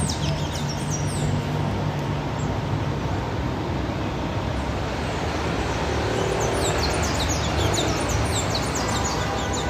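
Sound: birds singing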